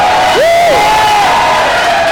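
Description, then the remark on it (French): A live audience cheers in a loud, steady roar, with a single rising-and-falling whoop cutting through early on, then the crowd noise carrying on unbroken. “Décidérez, devant public à la facté, faites du bruit!”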